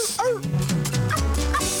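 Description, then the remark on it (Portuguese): A few short dog yips and whiny barks in the intro of a song ring out over a musical backing with a steady bass line, spaced irregularly across a couple of seconds and fairly prominent in the mix. “é, cachorro.”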